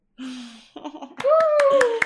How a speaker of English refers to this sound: Amazing. applause sound effect.